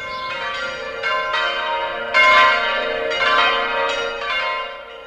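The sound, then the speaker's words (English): Church bells at Taizé ring out in a steady peal to call pilgrims to common prayer, with fresh strikes every second or so layering over long, shimmering tones that hang in the air. Loud and clear, with no voices. “Three times a day, the bells call pilgrims to pray.”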